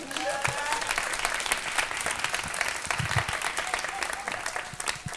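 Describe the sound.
Audience applause fills the whole stretch, a dense, steady wash of many hands clapping at an even loudness, with a few faint voices mixed in underneath.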